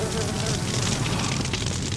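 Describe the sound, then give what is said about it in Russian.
Continuous buzzing of many flies swarming around a frying pan, a steady, dense drone that holds at an even loudness throughout, with no talking over it. “Если поставить сковородку на огонь, она раскалится, и мухи сами не будут на нее садиться.”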